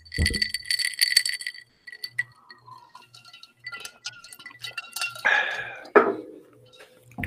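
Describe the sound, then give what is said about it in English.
A drink being made: bright glassy clinks and clatter, scattered small taps and drips, then a short splashy rush like liquid poured into a glass. “I'm gonna have to make myself a drink.”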